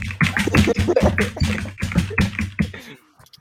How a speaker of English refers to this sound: Uh, you hear someone typing on a on uh, a keyboard, and you have no idea what typing or a keyboard is.